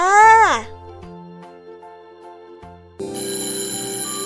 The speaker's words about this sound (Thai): เอ๊ะเสียงออดดังแล้ว อุ้ยต้องไปเข้าเรียนแล้วล่ะค่ะ